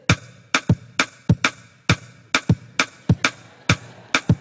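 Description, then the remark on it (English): Two layers of sharp percussive hits interlock in a steady repeating cycle, one pulse grouped in threes against another in fours, forming a clear three-against-four polyrhythm. Crisp, with no voices. “I can take a rhythm and play three beats at one time in a period of time. And I can play another sound four times in that same space.”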